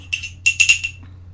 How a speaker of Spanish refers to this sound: Me voy a dar el segundo sorbito del día.